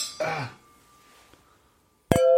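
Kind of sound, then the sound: household object, glasses clinking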